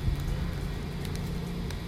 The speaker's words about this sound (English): I'm here in the rain, sitting in the rain.